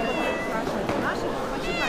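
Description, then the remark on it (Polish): A kitten in a little basket meows several times in high, wavering cries, while people talk over it in the background. “No i chyba kotek w koszyczku.”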